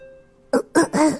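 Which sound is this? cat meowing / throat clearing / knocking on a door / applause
throat clearing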